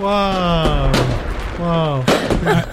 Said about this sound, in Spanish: Uy, uy, uy. Juegos artificiales. Feliz centenario, radio.